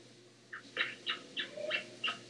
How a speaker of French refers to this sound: Ah ben, j'ai une idée. Je vais l'embrasser, le petit micro, hein Je vais lui donner la bise, et comme ça, ça, ça le baptisera.